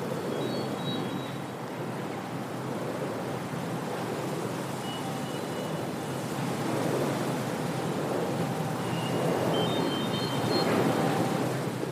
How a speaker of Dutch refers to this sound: Oh, nee, je hoort eh, de wieken van, eh, van de windmolens die daar ook naast staan.